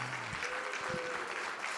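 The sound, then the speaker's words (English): An audience at the start of a summit applauds in a steady, dense round of clapping that holds at an even level throughout, with no voices rising above it. “So as we start this summit, I want to start off by all of you giving yourself a big round of applause, a loud round of applause”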